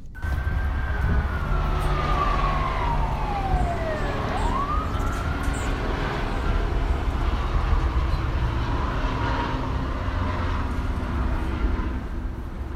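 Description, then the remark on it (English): A siren wails and sweeps down in pitch, then rises again, over a steady low rumble of city traffic and engines in Los Angeles, with no talking. “I live in the city of Los Angeles, and like most people, the sounds that I hear on a daily basis are sirens and helicopters and motors and machines and music”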